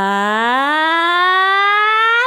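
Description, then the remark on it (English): A single loud, strained sung vowel slides steadily upward into a high chest-voice note and holds there for about two seconds, with no other sounds around it. “trying to put that in the higher pitches, but at one point you're going to feel that you're straining so much that your voice will give up.”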